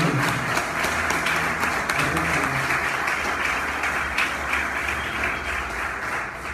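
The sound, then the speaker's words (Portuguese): An audience at a church service applauds Jesus and welcomes a new member, a dense, continuous wash of many hands clapping at a fairly even loudness, with a faint murmur of voices underneath. “Nós aplaudimos Jesus, seja bem-vindo, irmão.”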